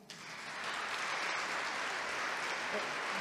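Sustained audience applause, a dense steady wash of many hands clapping that swells in the first half second and holds at an even, fairly loud level throughout, with no voices standing out.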